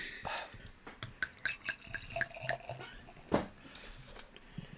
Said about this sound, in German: Ja, dann schenkt doch mal ein, Jungs. Ich bin schon dabei.